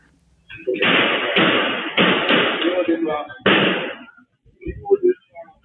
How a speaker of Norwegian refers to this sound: Først kom det fire skudd, så ett til.